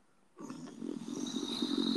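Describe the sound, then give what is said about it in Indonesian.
A voice imitates loud snoring, mimicking a woman asleep in a cinema during a film: a rough, rattling drone that starts abruptly after a brief silence and continues steadily, growing slightly louder, with no other talking. “dan itu ceweknya yang tidur dan ngorok kenceng banget sumpah, annoying banget”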